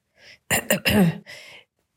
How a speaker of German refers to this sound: Hier, sagte sie und räusperte sich.